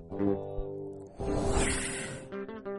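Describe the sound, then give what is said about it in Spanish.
A woman from the audience hums briefly, then lets out a long, loud breathy hiss lasting about a second, imitating smoke, before her voice returns at the end. “La señora que imita un humo, la señora.”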